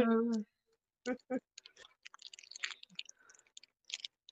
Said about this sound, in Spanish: Oye, en un momento de SMR, ¿quién está comiendo?